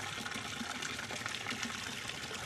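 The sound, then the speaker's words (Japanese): Steady splashing and trickling of steaming, free-flowing hot spring water at about 42–43 °C, a continuous bright liquid wash with small bubbling pops, as the water is scooped up. No one speaks. “なるほどあ気持ちいいなちょっとじゃあちょっとすくったんで”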